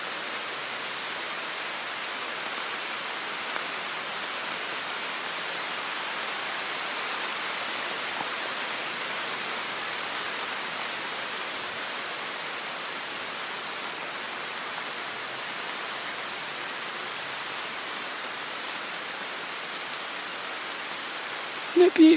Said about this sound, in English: Should we just listen to this rain for a bit?